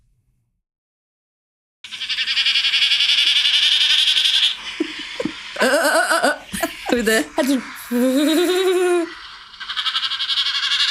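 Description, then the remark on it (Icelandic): A YouTube recording of a common snipe's winnowing plays as a steady, fluttering, bleat-like hum that runs continuously and fairly loud, while people talk and laugh over the middle of it. “Vá, hrossagaugur hljóð er eitthvað sem er til á YouTube.”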